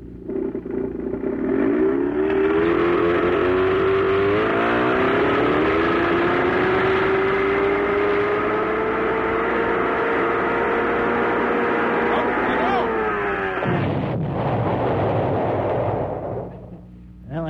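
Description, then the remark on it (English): A small outboard motor, run without water, screams at high revs, its whine climbing and holding loud, then suddenly gives way to a harsh clattering blast as the engine blows up. “what happens when you don't run them with water. They'll blow up.”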